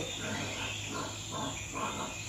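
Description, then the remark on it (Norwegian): A brown, hairy pig-like animal grunts behind bushes, four or five rough, muffled grunts in a loose steady rhythm over a constant outdoor hiss, partly hidden. “Det høres ut som en gris.”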